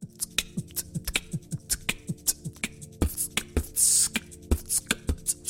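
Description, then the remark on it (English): Basic beatboxing: a voice imitating a drum kit with a steady, quick rhythm of punchy kick and snare sounds, crisp clicking hi-hats and one short sustained hiss. No talking. “Yo, can I get some basic beatboxing going?”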